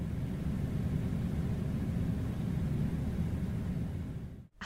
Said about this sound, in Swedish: Och det rätta svaret är en klimatanläggning!